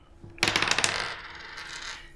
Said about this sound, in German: hat die Aufgabe, mit einem Würfel zu würfeln.